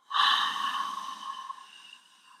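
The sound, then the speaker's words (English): A single long, breathy exhale during a breathing exercise, starting strong and slowly fading over about two seconds, with no talking. “We're going to take a nice deep inhale on three.”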